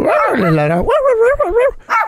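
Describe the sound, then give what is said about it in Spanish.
A person's voice mimics a dog barking, giving a long strained yelp followed by several quick, rising and falling barks, loud, with nothing else in the background. “Se le vio como jefe de la manada, porque él, llegaba, él llegaba a la ciudad y los coyotes se esperaban ahí entre, entre los árboles y él les gritaba,”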